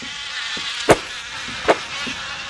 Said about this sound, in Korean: 하, 이거 모기 소리입니다. 진짜 쓸데없는 해충, 모기.